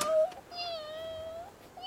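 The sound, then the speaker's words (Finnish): Two kittens mew in high, thin cries: a short call, then a long drawn-out wail, and another starting at the end, fairly loud with no talking. “Kaksi kissan niin. poikasta.”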